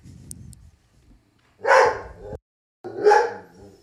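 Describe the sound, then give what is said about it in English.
Puppies bark twice in quick succession, each yap a sharp, fairly loud burst with a brief pause between, after a low rumbling murmur at the start; no one speaks. “Cute little puppies. Oh, they're all they're savages.”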